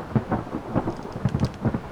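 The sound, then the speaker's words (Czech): A heavy thunderclap from lightning striking nearby rolls into deep, pulsing rumbles that surge several times, with a steady hiss of rain underneath and no voices. “Z následujícího mohutného hromu pocítil, jak živel mocně udeřil nedaleko od něj.”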